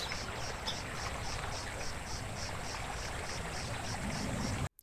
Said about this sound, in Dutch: vandaag volledig per toeval beland bij een compleet verlaten, rustig kabbelend beekje.